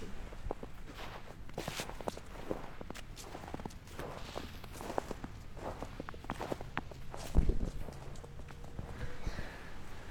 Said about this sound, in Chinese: 大家可以听听看我们采雪的声音，虽然听上去可能有点像放屁